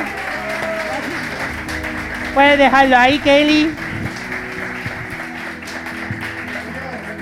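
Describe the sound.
Steady audience applause fills the background throughout, running under a man's speech, with a brief louder burst of tonal, music-like sound in the middle.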